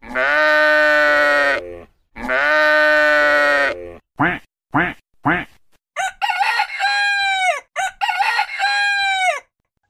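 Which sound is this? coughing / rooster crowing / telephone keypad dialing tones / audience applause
rooster crowing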